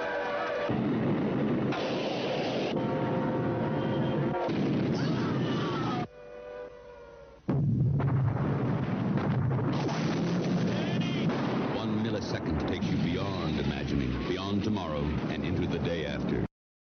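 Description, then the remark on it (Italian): A bomb blast booms out at the end of the original English-language film trailer, amid dense, rumbling sound with heavy bursts like artillery fire, and voices speaking over the din before everything cuts off abruptly. “trailer eh, era ovviamente quello originale in lingua inglese e il tema mi sembra ben introdotto anche dal suono della bomba alla fine dello stesso”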